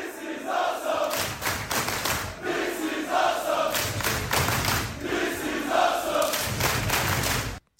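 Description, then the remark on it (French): A loud crowd of fans at a wrestling event cheers and chants for the athletes in rhythmic waves, with heavy thumps and stomping pulsing roughly every few seconds under the continuous roar. “mais une foule aussi qui sait récompenser les athlètes et le spectacle merveilleux sous leurs yeux.”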